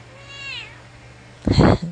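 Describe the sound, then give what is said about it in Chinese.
A cat meows twice: first a soft, drawn-out, falling meow, then after a short pause a louder, rougher meow with a brief trailing chirp. “我的猫似乎很赞成。”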